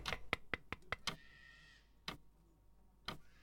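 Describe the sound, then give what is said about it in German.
A quick run of about six sharp knocks on a glass pane, then two slower, spaced taps after short pauses. The knocks are crisp, with no voices. “Ich klopfe mal an die Scheibe.”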